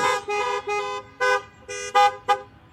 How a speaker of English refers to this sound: If I hear a long honk, that means somebody fell asleep on the horn. I know what that means.